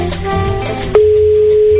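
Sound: telephone ringback tone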